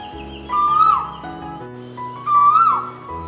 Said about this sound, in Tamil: and லைட்டாக இருட்டவும் ஆரம்பிச்சிருக்கு climate அப்படியே நல்லா குளிருது நிறையா பறவைகளோட சத்தம் கேட்குது